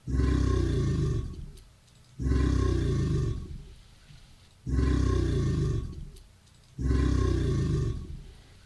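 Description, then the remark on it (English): Four loud, deep bellowing roars from an alligator, each lasting about two seconds with brief pauses between, rumbling low with no voices present. “All right, now that should get your attention because that's an alligator.”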